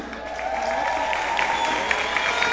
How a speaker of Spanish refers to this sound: Así que los dejo con mi bella esposa que está muy hermosa, ¿cierto? un aplauso.